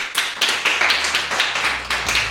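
A small round of applause: a few hands clapping steadily and fairly loudly for a couple of seconds, with no one speaking over it.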